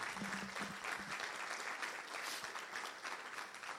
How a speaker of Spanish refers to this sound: ¿Cuántos le dan un aplauso a ese Padre Celestial?